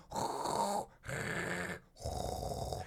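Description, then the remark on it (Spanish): A voice imitates soft pink-noise static, the kind some people sleep to, in three breathy, hissing bursts, each just under a second long with short pauses between them, fairly steady. “a mí me gusta dormir con el ruido rosa, que ¿Cuál es el ruido?”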